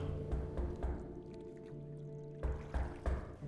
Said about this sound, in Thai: แต่แล้วจู่ๆก็มีเสียงเคาะใต้เรือดัง